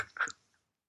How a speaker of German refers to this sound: irgendjemand von euch raschelt? Jetzt natürlich nicht. Aber irgendjemand raschelt schon die ganze Zeit. Ihr raschelt jetzt auch.